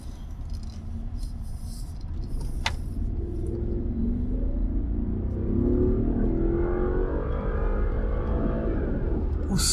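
The V8 engine of a BMW 7 Series rumbles low and steady, then revs up with a rising, growling roar that builds in pitch and loudness over several seconds, with no voices.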